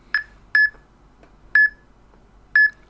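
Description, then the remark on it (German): An app gives four short, bright electronic beeps with a mid-high pitch, beeping faster as a bottle of remoulade is held before the camera to find its expiry date; the first two close together and the rest spaced about a second apart, over a faint low hum with no talking. “So, jetzt wird das Piepen schon mal ein bisschen flotter.”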